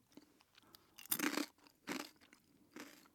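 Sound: crunchy snack being chewed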